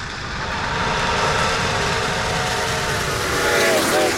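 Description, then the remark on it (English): A steam locomotive roars by loudly with a heavy, steady rumble and hiss, while high metallic squeals and a whistle-like wail rise over the din near the end. “There's something about locomotives that drive men hotter than a steam engine.”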